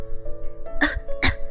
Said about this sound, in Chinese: 他又开始咳嗽起来。